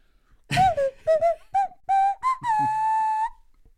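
A nose flute plays a short breathy tune: several quick wavering notes, then one long sustained note that slides slightly upward before stopping. It is fairly loud and heard alone.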